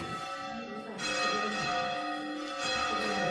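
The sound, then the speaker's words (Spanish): A church bell rings loudly, its rich metallic tones hanging in the air, with a fresh strike about a second in that renews the shimmering, sustained peal. “y me deja la campana.”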